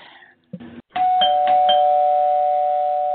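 A loud electronic doorbell rings, a sharp chime struck a few times and then a long sustained tone that holds steady, with no one talking over it.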